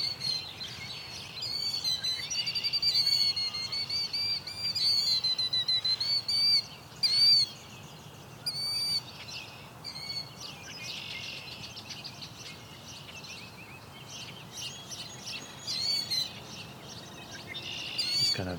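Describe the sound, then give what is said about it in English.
A killdeer gives a rapid, vibrating trill over and over while feigning a broken wing, fairly loud, amid a dense chorus of high chirps and calls that carries on throughout without any talking. “vibrating sound the one is making. It's trying to feign a broken wing.”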